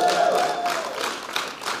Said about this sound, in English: They don't know why they're clapping yet, but they are.